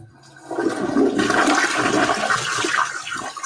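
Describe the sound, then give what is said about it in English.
A loud vacuum-style airplane toilet flush on a flight to Denmark: after a brief quiet moment, a harsh rushing whoosh bursts in and roars steadily for about three seconds, with no one talking. “So this is a Denmark flush. So this is like this is the airplane.”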